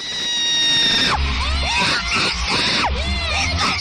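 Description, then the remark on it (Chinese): A crowd of fans screams loudly and shrilly at a school where a singer is starting high school, starting with one long, steady high-pitched shriek, then breaking into a dense wall of overlapping screams with swooping rises and falls. “这是边生娃娃边喊吗？音浪太强，我的虎躯为之一震，感觉这个学校以后会成为一个景点，天天都有粉丝来尖叫”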